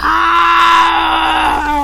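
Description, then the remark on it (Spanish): A person's voice imitates Tarzan's jungle yell while swinging on a vine: one loud, sustained, open-throated cry held for nearly two seconds, with a slight waver as it trails off. “Porque los atacaban los gorilas y saltó la liana y le gritó, Jane, agárrate de la liana, Jane, agárrate de la liana.”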